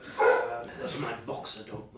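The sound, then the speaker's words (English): A dog lets out a loud bark at the start, followed by a few softer yips and whines mixed in with a person talking. “The dogs will think you're a photographer, and they don't like photographers.”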